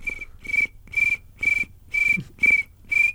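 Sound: person imitating cricket chirping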